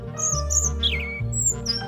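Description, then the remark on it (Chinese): A tiny, all-green bird chirps in short, high, bright bursts, a few notes repeating with one quick downward trill, over a steady low humming background. “都会有一只很娇小、很可爱、全身绿乎乎的小鸟飞到他的手掌心，赖着不走，好像是刻意陪着小杰，叽叽喳喳地提醒他：“哎，你要走回正确的路啊！”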